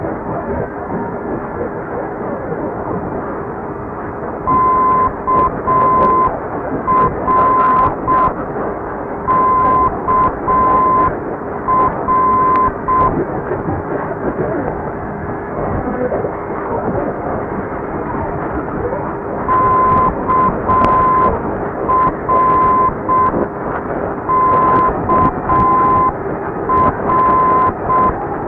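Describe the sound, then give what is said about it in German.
A medium wave radio beacon sending its call sign in Morse: a steady mid-pitched tone keyed in dots and dashes, repeated twice over constant loud static hiss with a pause between. “Eine Station, die auch regelmäßig in Mitteleuropa gehört werden kann, ist Krabovo aus Kaliningrad, Rufzeichen KAL.”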